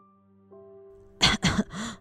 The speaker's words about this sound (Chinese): 因为两人太接近了，奶奶也被传染了，一直咳嗽、流鼻水。